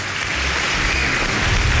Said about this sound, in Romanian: Uh, aplauze pentru Mișu, evident, nu pentru noi.